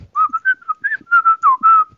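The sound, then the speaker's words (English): Someone whistles a quick little tune, about a dozen bright notes in a bouncy, uneven rhythm that rise and dip in pitch, with no talking over it. “You can like whistle something or something.”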